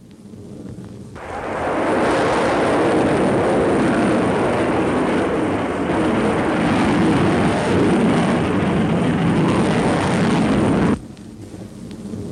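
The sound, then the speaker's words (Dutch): A V2 rocket's takeoff roar starts suddenly after a moment, then holds as a loud, dense, rumbling blast for about ten seconds before cutting off abruptly, leaving a faint low rumble behind. The giant rocket's actual takeoff is very slow, about 30 miles an hour. “those of us in Britain who have listened to the roar that followed the explosion of a V 2 on arrival will certainly recognize it”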